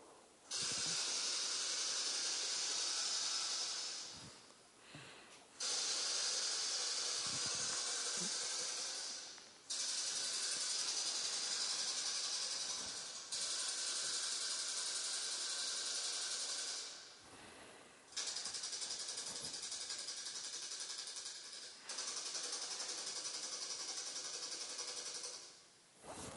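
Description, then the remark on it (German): A poetry automaton's mechanism whirs and rattles loudly as it randomly generates a poem, one of 10^36 possible poems, running in sustained bursts of several seconds with brief pauses between them, with no voices. “Ja, so hört sich das an, wenn er ein Gedicht würfelt.”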